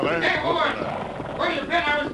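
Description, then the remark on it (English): Horse hooves gallop in a steady rhythmic beat across ranch grasslands while the rider, a man waving his arms, shouts loudly over them in two bursts, energetic. “and they saw a horseman galloping toward them, waving his arms and shouting.”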